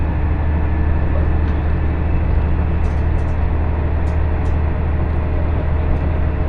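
Steady, loud low-pitched rumble of an IGR Iwate Galaxy Railway and JR Hanawa Line train running from Morioka to Ōbuke, Japan, heard from inside the carriage, with constant droning noise and a few faint clicks and rattles over it throughout.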